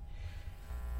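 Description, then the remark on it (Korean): A steady low electrical hum with a rumbling, throbbing undertone, noise coming from a microphone. It holds at a constant moderate level throughout, with faint hiss above and no voices. “약간 잡음이 막 마이크에서 들리는 것 같은데.”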